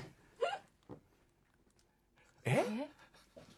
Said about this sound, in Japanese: ちょっと、これさ、おならの音じゃないやっぱし。おならでしょおなら非常にプライベートな音。